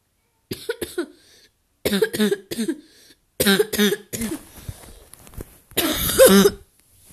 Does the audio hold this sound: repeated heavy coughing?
yes